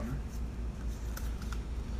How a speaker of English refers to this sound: I can get the paper unfolded